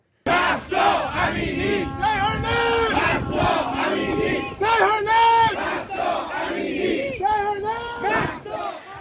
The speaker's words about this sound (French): Ce sont des supporters iraniens qui apportent leur soutien à l'Iranienne qui a été tuée par le régime lors d'une manifestation. Écoutez.